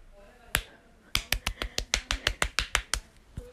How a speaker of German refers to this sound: Ich, ich schlag mich jetzt selber. Ihr werdet es jetzt vielleicht hören, ich gebe mir jetzt selber eine Schelle.